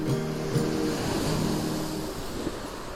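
Ocean waves wash onto a beach at the Hayama seaside at dusk in a steady, full roar that never lets up, with a few low sustained tones humming underneath. No one speaks.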